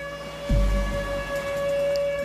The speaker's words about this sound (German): hörst du schon wieder die mhm. Sirene.